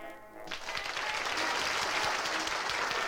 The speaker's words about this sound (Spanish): Los aplausos que contenían los huevos son secundados por los de la concurrencia, que vitorea el bello e inesperado acto final.